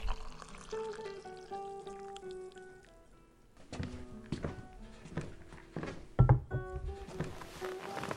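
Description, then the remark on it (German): Tea pours steadily from a teapot into a cup, a rising trickle against soft background music, followed by a few dull thunks and clinks of crockery being set down. “Ja, erstmal ein schönes Kännchen Tee.”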